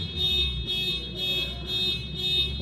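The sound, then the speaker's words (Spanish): In Morelia, the alarm of a car parked right in front blares in a steady repeating pattern, five loud pulses of a high electronic tone, each roughly half a second long, with a low rumble underneath and no talking. “No mames, es un carro que está aquí enfrente. Aunque ya gracias a Dios lo callaron.”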